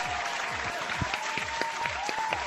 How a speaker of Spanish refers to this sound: Aplauso